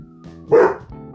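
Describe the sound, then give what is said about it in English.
A single loud bark from someone's pet dog bursts out over a low background hum, sharp, then fades quickly into quiet. “That's my dog.”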